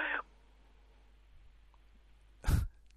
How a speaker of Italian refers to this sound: Eh, ma le è caduto il telefono proprio nel momento peggiore